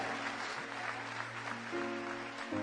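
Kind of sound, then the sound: crowd, church audience applause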